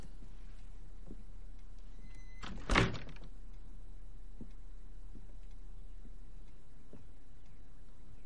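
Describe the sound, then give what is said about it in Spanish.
A man closes a door with a brief, solid thud and a short rattle, standing out against an otherwise quiet background with a low steady hum and faint scattered ticks. “Él agacha la cabeza y cierra la puerta.”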